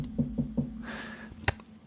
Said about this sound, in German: Aber schnell mal ein Holz klopfen. Warte, ich mach das.